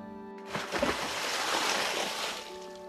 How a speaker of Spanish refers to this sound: Sin pensarlo, saltó al agua